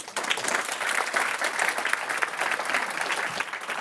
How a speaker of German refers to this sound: An dieser Stelle herzlichen Applaus für alle Teilnehmerinnen und Teilnehmer am Publikum.